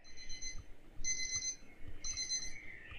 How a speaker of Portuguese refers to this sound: Você vê o reloginho despertador, né? Então é tipo dia da semana desperta, três e meia.